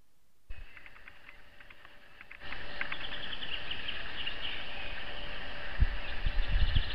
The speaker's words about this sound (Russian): Птички поют прям.